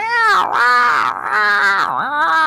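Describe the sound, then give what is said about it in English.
A person mimics fox or jackal cries with a loud, continuous yowling wail that swoops up and down in pitch, like a deep-throated cat caterwauling. “they sort of sound like deep-throated cats.”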